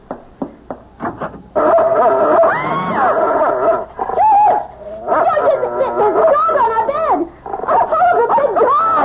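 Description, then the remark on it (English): A dog barks, a few short sharp barks first, then a loud, nearly continuous stretch of excited yapping and whining that rises and falls for several seconds. “It's only a dog, for Pete's sake.”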